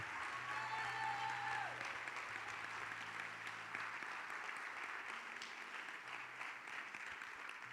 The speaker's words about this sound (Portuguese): Pode dar um glória a Deus bem forte ao Senhor? Quer aplaudir o Senhor? Aplaude com fé, meu irmão. Crente que é crente, aplaude com fé.